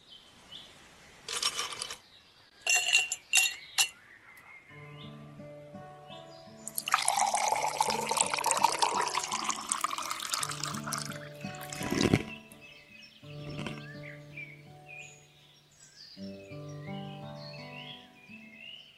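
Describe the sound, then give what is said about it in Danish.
A collage of eating and drinking: several sharp, crunchy bites of a cracker and an apple come first, followed by a long, frothy pour of beer with fizzing and a few clinks, no voices. “En kiks, det her, et æble, det, det er simpelthen en, øl. en lydkollage.”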